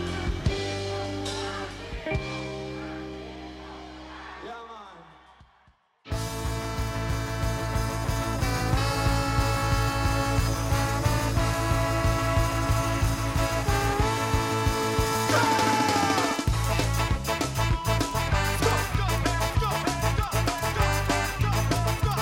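A full band plays loudly, performing live at the Montreal Jazz Festival in 2002, with dense layered instruments and a steady driving rhythm, briefly thinning out before surging back in and carrying on energetically.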